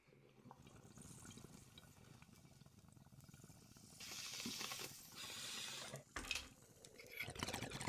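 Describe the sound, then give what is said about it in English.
Steady water bubbling gurgles in a bong for several seconds, then a louder rushing airy draw as someone inhales hard through the bong, the bubbling continuing underneath. No one speaks. “Would love a bong rip everyone out there, get your bong rips ready.”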